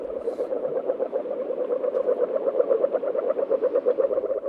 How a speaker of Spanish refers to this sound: Oye, mira, está, sonando la rana, la rana ágil, que me la imagino, no sé, como en, el, gimnasio de Salburúa todos los días, ¿no? Entrenando, para ser así, así de ágil.